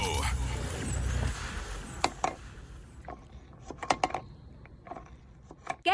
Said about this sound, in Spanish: El sonido misterioso es un plumón guardándose en un bote.